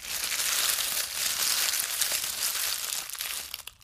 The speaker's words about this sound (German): Das ist das Geräusch von trockenem Laub am Boden, wenn man da durchläuft.